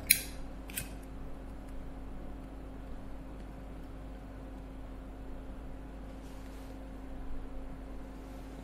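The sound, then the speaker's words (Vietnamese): Two sharp clicks of an empty lighter being flicked to light a cigarette near the start, with no flame catching, followed by quiet with a steady low electrical hum in the background. “chết mẹ bật lửa hết ra rồi ai đó là tôi mượn cái bật lửa coi”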